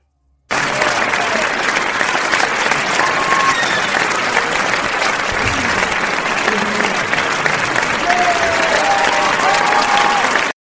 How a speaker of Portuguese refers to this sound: Vamos, espero que ainda não estejam cansados de aplaudir.